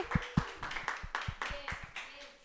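A small group claps in a quick, uneven burst of applause, moderately loud, with faint voices murmuring underneath, applauding Salvador, a favourite teacher who is absent, at a school programme.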